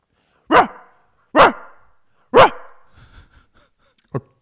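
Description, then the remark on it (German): A person imitates a dog barking: three loud, evenly spaced, harsh, unfriendly barks, followed by a few softer breathy sounds and a short final yip, with no talking. “jetzt will ich aber dein Bellen hören”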